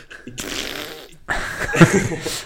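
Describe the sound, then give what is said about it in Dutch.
Two rough bursts of creaking and crackling from a person's old shoulder joints cracking as they shrug, with a brief gap between them and a faint voice murmuring near the end. “ja, ik hoor het kraken. Ja, ja het is dat. dat zijn mijn oude schouwers.”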